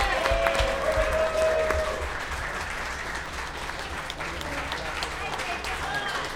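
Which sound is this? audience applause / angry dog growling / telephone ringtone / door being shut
audience applause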